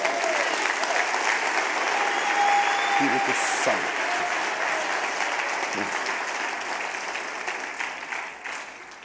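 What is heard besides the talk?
audience applauding loudly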